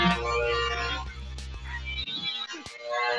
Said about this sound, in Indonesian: Suara gerinda bro itu mah besi di gerinda. Iya, makanya lagi gerinda besi. Oh, gerinda.